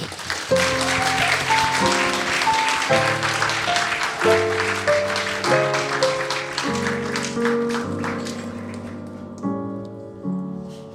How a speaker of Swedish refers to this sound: Men stort tack och tack ge honom en varm applåd.